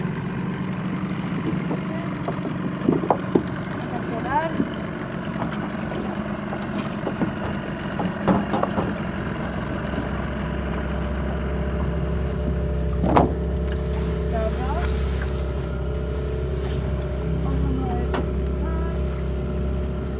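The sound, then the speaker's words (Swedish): A boat engine idles with a steady low rumble that deepens and grows fuller partway through, joined by faint clunks, water sounds and occasional brief chirps. “Jag tror fan vi behåller motorn på tomgång.”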